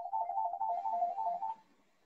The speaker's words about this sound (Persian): این صدای تلفن از منه از شماست از اتاق بغلی یکی نه از تلفن مزاحم تلفنی بود سریع قطعش کردی